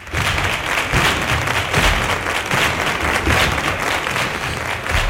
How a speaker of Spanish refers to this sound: La norma inscribe el flamenco como bien de interés cultural y ha sido recibida con estas palmas, con baile y cante de los artistas desde la tribuna de invitados en el Parlamento de Andalucía.